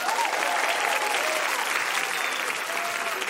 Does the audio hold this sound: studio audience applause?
yes